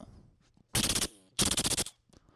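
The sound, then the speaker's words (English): A gunfire sound effect: two loud bursts of rapid automatic gunfire, each a quick string of sharp cracks, separated by a short pause and surrounded by a quiet background. “I'm like, did you just shoot us up?”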